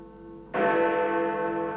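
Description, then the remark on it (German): A large church bell, the Peace Bell, cast in 1928, 2.34 m in diameter, weighing 8.3 tonnes, with strike note F-sharp, strikes once over the lingering hum of an earlier stroke, its deep, rich tone swelling loud and then sustaining with a long, shimmering resonance. “Friedensglocke.”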